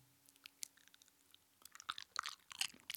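Wet lip-smacking while chewing: a few sparse moist clicks at first, then a quick, busy run of smacks and squelches. No one speaks.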